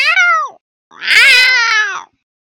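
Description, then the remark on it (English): A person imitates a cat with two high, whiny meows, a short one followed by a longer, louder drawn-out one, with no other talking. “Yes, you make cute little kitty noises regardless, and it's great.”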